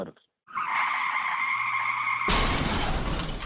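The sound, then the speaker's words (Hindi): A car's tires screech in a long, steady high-pitched skid for nearly two seconds, then a loud crash of impact and shattering debris abruptly takes over and continues to the end. “We hope this never happens to you. If it does, you need a professional to take care of your car.”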